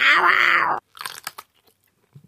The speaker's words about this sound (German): Knackig und knusprig ist die Wurst auf jeden Fall auch gewesen. Obwohl ich die Pelle ein ganz klein wenig zu gummiartig fand.